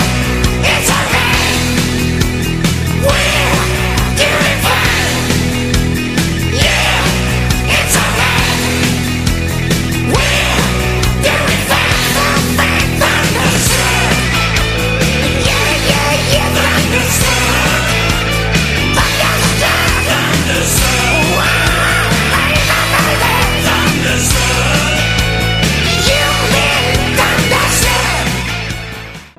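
A loud, dense hard rock track plays continuously, with driving distorted guitars, pounding drums and a shouted vocal edge, steady and full-volume throughout before cutting off at the end.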